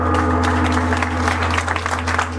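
Steady applause from an audience, a dense crackle of many hands clapping at once, sustained and fairly loud throughout with no voices on top, over a low constant hum.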